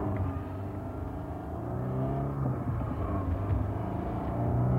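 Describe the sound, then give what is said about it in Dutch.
A car driven by a woman pulls away and accelerates fast, its engine rising in a steady low rumble with harmonic whine sweeping upward, sustained and fairly loud throughout with no voices. “Jongen, rijdt dat mensen altijd hard?”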